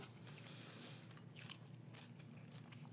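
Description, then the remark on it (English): Moist chewing and biting sounds with soft crunches and smacks, three people eating a burrito at once with no talking, a brief sharper crunch midway. “Is when all three of us are literally just chewing as quickly as possible to mm-hmm. say something.”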